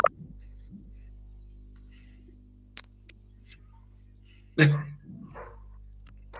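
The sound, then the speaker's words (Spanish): A dog gives one sharp, loud bark, standing out against a steady low hum, with a few faint clicks and taps scattered before it. “Ahí escuché un perro, parece que ese es Terco.”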